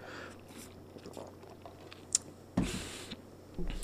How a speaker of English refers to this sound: Have to have a sip of water and appreciation.